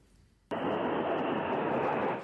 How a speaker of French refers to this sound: dans le ciel de Moscou, les moteurs des avions de chasse grondent au-dessus de la place rouge. Un des escadrons d'aéronefs forme un Z, signe de l'armée russe en Ukraine.